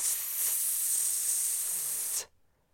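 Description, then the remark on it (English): A person hisses like a snake in one steady, bright breathy hiss lasting about two seconds, then it cuts off abruptly into near silence. No talking accompanies it. “Snake.”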